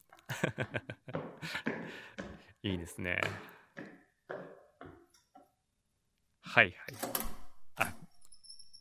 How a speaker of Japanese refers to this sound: で次ここれはね ZIP の非常階段の扉を開けて階段降りてろと